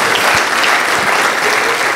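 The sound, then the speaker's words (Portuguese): A church crowd applauds Jesus loudly and steadily, many hands clapping in a dense, continuous patter with no voices standing out. “Então aplauda o Senhor Jesus, ele merece.”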